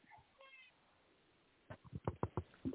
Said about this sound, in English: Well, the cat had to say meow, and you said that.